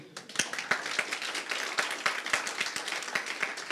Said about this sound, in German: Ja, wir, wir klatschen für Jesus, ja? Das ist so unendlich wichtig, dass wir verstehen, wann wir klatschen, dann gescheit bitte. Nochmal, geht schon.